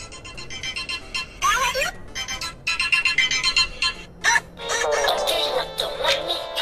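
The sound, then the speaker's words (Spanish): A telephone ringtone plays a bright, electronic melody in several short bursts, then a longer sustained stretch, clear with no one talking over it. “Jefa, te hablan por teléfono.”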